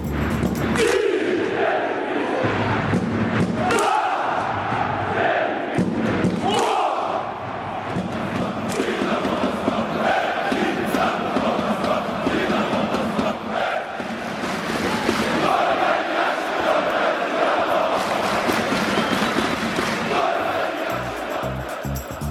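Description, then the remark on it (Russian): A large crowd of Dynamo football fans chants in unison, a loud, sustained roar of voices repeating the line "Only Yashin, only Dynamo" over and over, with occasional thuds underneath. “Чаще всего последнюю строчку «Только Яшин, только Динамо» фанаты бело-голубых повторяют огромное количество раз.”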